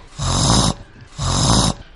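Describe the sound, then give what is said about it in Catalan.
Someone imitates a pig with two loud, rough grunting snorts, each lasting about half a second with a short gap between them, low and raspy with a broad noisy hiss. “De sobte, un porc li va preguntar... Et vols casar amb mi? A veure com és la teva veu.”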